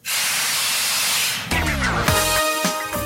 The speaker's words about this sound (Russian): А, ну, а у нас, кстати говоря, есть игрок, сорвавший стоп-кран. Стоп-кран!